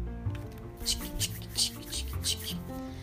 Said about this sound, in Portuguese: Olhou dentro do banheiro e viu um pote de sabão e teve uma ideia que poderia funcionar. Misturou o sabão com a, com a água e pôs as mãos a esfregar.